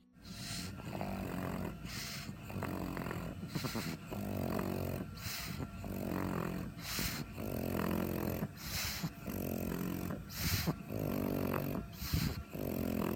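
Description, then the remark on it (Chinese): A dog breathes with a harsh, snoring-like rasp while awake, an abnormal breathing sound likened to snoring while awake; about ten loud, noisy breaths repeating in a steady rhythm with no voices over them. “那在第二集呢，就是运动后你会发现 或是甚至运动前，这个狗狗就会有一些不正常的呼吸音，那也就是大家常听到的，比较像有点我们可以说是醒着打呼。”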